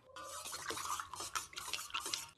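stirring a potion

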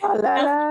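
dog whining

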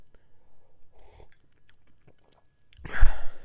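sipping coffee

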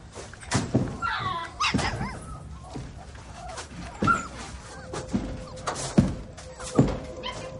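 dog panting and barking

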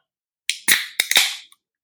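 beer being opened

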